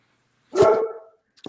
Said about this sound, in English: I apologize, uh, but my uh, producer dog is uh, making some noise here in the background.